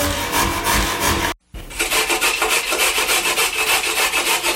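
Steady rhythmic rasping of a carrot being grated on a grater, rapid back-and-forth strokes with a brief pause near the start before the scraping resumes at the same pace.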